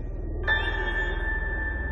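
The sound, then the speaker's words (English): A single bell is struck about halfway through, and its bright, layered tone keeps ringing and sustaining to the end over a low, steady background rumble. “The bell echoes above.”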